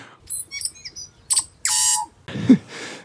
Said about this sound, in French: c'était une salutation d'un oiseau endémique de l'île du Nord de la Nouvelle-Zélande